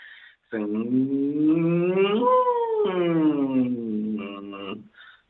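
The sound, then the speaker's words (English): A single sustained voice does a siren vocal warm-up, gliding smoothly upward and back down through its range in one long, loud sweep, lasting several seconds with rich harmonics and no words. “Um, well, this is called a siren, and it's good to get your range going.”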